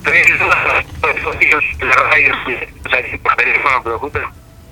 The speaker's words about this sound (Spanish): Para que te estamos escuchando un poquito entrecortado. A, ver ahora. Un poquito con interferencia. Te, estamos escuchando con un poquito de interferencia.